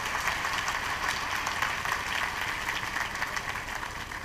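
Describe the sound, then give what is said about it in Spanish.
An audience at a Spanish-language church service claps for the Lord in a dense, steady burst of applause that holds at an even, fairly loud level for several seconds, crackling with many overlapping hands and no voices. “Dale un aplauso al Señor por esa gracia, por esa bendición.”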